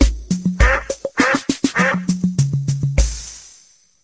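A rapid series of loud, nasal duck quacks in a steady rhythm, with a low tone underneath, ending in a longer fading sound. No one speaks.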